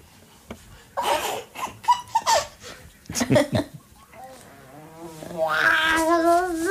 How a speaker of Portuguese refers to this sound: Vou saltar aqui na mensagem porque a dada altura os bebés tentam rir, mas só gritam.